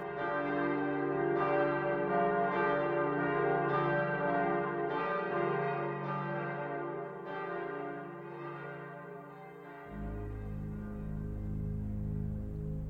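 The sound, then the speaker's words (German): Church bells peal steadily, one resonant strike roughly every second over a deep, humming drone, loud with no voices. Toward the end the low tones shift as the ringing continues. “Und was besser symbolisiert es als Kirchenglocken?”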